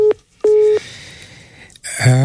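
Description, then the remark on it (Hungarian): A telephone busy signal from a call to a listener's phone sounds twice as short, steady mid-pitched beeps with a pause between them, followed by faint line hiss and a brief burst of another sound at the end. “Hát én jó napot kívántam, de a hallgató telefonja erre bemondta az unalmas szóval.”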